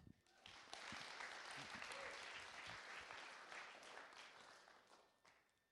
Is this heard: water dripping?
no